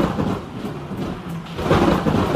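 A deep rumble of thunder rolls through steady rain, swelling louder toward the end. The sound is broad and low, with no voices present.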